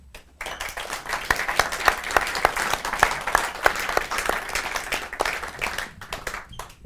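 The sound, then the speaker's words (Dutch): A crowd breaks into steady applause for Laurens Ham, dense overlapping claps with some sharper individual hand claps standing out, sustained for several seconds before thinning out at the end. “Dus mag ik een hartelijk applaus voor Laurens Ham.”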